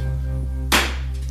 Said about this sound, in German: So, der Klatscher war die Klappe zum Start, zum Synchronisieren.